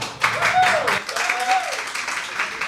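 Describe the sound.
An audience applauds a band with dense, steady clapping that swells quickly and holds for a few seconds, with cheering voices rising and falling over it.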